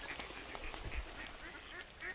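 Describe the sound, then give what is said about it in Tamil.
Several short duck quacks repeat irregularly across a couple of seconds as a mother duck leads her ducklings to the water, fairly soft, set against a steady background hiss with no one talking. “தாய் வாத்து தன்னுடைய குஞ்சுகளை அழைத்து கொண்டு நீர்நிலைக்கு சென்று விளையாட ஆரம்பித்தது”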